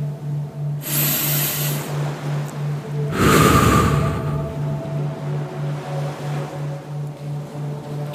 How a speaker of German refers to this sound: Im Hintergrund rauscht der Ozean, die Palmen und die Möwen grüßen noch ein letztes Mal.